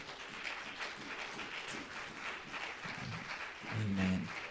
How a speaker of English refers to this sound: One more time, would you just clap your hands to the Lord?